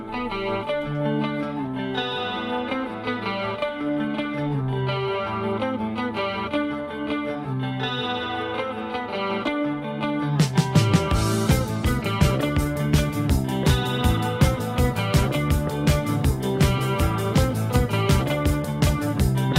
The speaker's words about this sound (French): leur seul véritable hit, c'est …. Bah, que nous allons écouter euh, pas plus tard que maintenant.